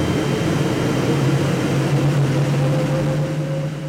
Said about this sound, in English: Then we hear this sound like a jet engine starting up.